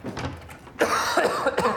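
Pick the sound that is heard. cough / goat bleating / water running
cough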